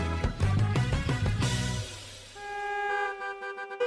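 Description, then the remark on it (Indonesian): Car horns blare in a traffic jam, with short overlapping honks giving way to long sustained blasts, loud, with no one talking. “Duh, macet banget sih.”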